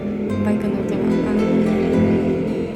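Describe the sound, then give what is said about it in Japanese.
A motorcycle engine passes by, its loud, steady droning rumble filling the whole few seconds with dense, buzzing harmonics that barely fade. “バイクの音がすいません”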